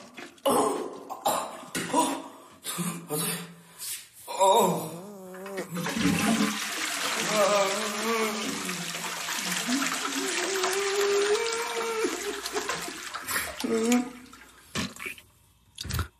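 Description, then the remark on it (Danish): A person coughs and groans in short bursts, then a toilet flush roars for several seconds while a voice keeps moaning over the rushing water, which tapers off. “Du kommer til at sidde grædende på det forkaklede gemak, mm. omvendt med fast benspænd omkring cisternen og hakke din pande ned i trækkemekanismen, ja.”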